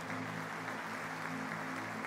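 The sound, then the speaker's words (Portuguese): A church audience claps to honor fathers in a steady, dense patter that fills the whole clip, with a sustained low musical drone, like keyboard chords, holding underneath. No one speaks. “Você pode dar uma salva de palmas honrando esses pais.”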